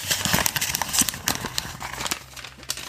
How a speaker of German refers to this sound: es gibt ja so ASMR-Videos und es gibt ja welche, die haben nur so Papiergeknülle.